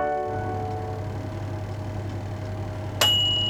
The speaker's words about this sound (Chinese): 乖乖，这是烤箱到达我们设定的温度的时候所发出的提示音。